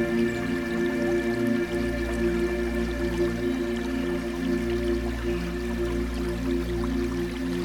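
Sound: river water flowing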